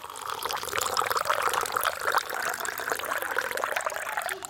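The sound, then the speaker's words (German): Water is pumped through a hose into cups, pouring and splashing steadily in a continuous bubbling trickle with no breaks, fairly loud throughout. “Da ist die Pumpe und wenn die Pumpe mit Wasser gefüllt ist, drückst du und dann stehen da die Becher, dann geht es durch den Schlauch und dann geht es in die, in die Becher.”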